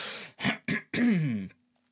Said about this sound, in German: ich muss mich hier und da doch immer noch mal ein bisschen räuspern. Ich hoffe, es ist für euch trotzdem gut anzuhören.